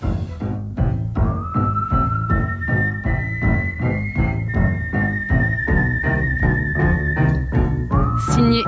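A clear, sustained whistled melody of long held notes glides over a steady rhythmic band accompaniment with a regular pulsing beat, prominent and close.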